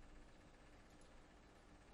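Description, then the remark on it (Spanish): After near silence, a sudden loud, low burp erupts right at the end, abrupt, cut off almost as soon as it starts. “¿Eso fue un eructo?”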